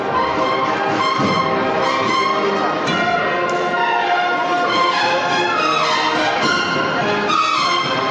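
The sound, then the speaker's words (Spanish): A processional band plays a march coming from the city of La Peña, with full sustained brass-like chords and melody holding steady and loud throughout, and a few soft percussive taps underneath. “de esta puerta de salida, lo cual nos permite también escuchar con mayor nitidez la, la marcha que viene desde la ciudad de La Peña.”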